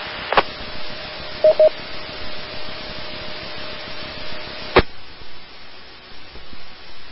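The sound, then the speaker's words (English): An APRS packet radio data transmission heard on a radio net over a hissing channel: a steady electronic tone with a few quick beeps, bracketed by sharp clicks, lasting about four seconds before only static remains. “Sounds like an APRS signal”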